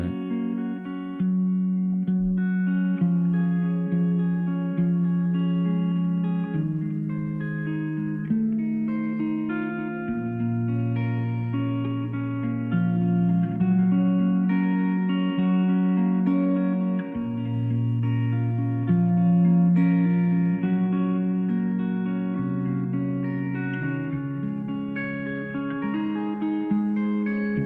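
A recorded song with electric guitar, slow and reverberant, its long sustained notes ringing over a low bass line at a steady, moderate level, with no talking over it.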